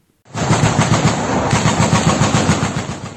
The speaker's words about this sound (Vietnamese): Video do Reuters thu được cho thấy xe tăng khai hỏa và binh lính nổ súng.